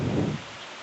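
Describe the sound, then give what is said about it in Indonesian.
Steady rain hisses, with a deeper rumbling wash for the first moment before it settles into an even patter. No voices are heard. “Edisi hujan.”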